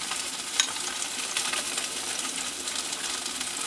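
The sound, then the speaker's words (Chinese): A thick salmon fillet sizzles steadily in a frying pan as it is pan-fried until golden, a continuous bright hiss and crackle of hot oil with one brief sharp tick early on; no one speaks. “好，鲑鱼的另外一边呢，也已经煎到有金黄色了。”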